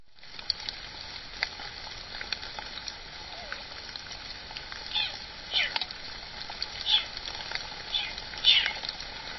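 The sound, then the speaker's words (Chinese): A few short, high-pitched mewing calls from a leopard cat kitten, recorded by a monitoring camera set up in the wild, spaced a second or two apart, rising faintly above a steady hiss of rain pattering on the equipment. “这个是我在做做硕士研究的时候， 嘿， 在野外装的很多就是监测的相机啊，有录到一段石虎宝宝的叫声 啊、哦，你这个偷拍狂。”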